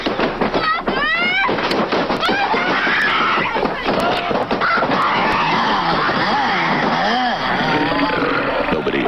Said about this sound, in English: Yeah, it's I, I just listening to that just it, hearing it, the girl scream it, it's scary